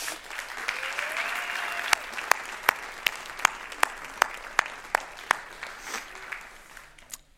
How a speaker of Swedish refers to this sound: Så får vi eh, be konfirmanderna komma fram och ta plats här, ska vi ge dem en applåd?